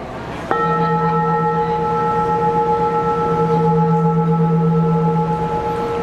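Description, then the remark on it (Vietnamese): A single strike of a meditation bell, used when teaching vipassana meditation, rings out clearly, its bright overtones sustaining steadily for several seconds with a low hum underneath, loud with no voices. “ta mới cúng cái chuông để đánh khi giảng thiền vipassana nên bắt mình phải đem lên mình đánh cho người ta có phước chứ đúng không”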